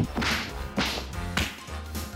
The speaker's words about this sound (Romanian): Da, Ce bine, asta e în post-producție cu pumnii. Că nu s-a dat. nu s-a împărțit da. pumni.